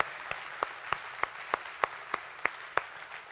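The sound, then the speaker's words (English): An audience breaks into applause for people who acted out Ruth and Boaz, a dense wash of many hands with one steady clapper cutting through at an even pace, no voices, lasting a few seconds. “Can we give him a round of applause for being Ruth and Boaz?”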